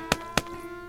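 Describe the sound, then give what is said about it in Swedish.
Two dull thuds land about a quarter second apart as pieces of meat fall from a clear, sunny morning sky onto porch steps and a lawn. A faint steady hum runs underneath, with no voices. “Plötsligt hörde hon en liten duns från verandatrappan. Det följdes av flera andra dunsar på gräsmattan.”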